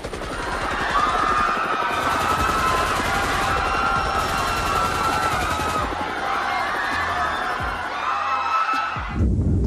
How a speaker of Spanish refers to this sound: Porque dispararon fueron los disparos hechos desde la azotea del edificio Chihuahua. De allá dispararon perversamente contra los soldados y contra sus propios compañeros, o por el nerviosismo del momento y su falta de práctica